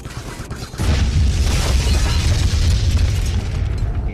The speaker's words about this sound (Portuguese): Tão fuzilado que ele simplesmente explode.